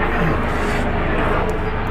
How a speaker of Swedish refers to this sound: vi sitter ute och det kommer helikopter.